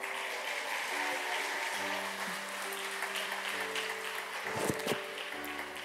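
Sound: audience applause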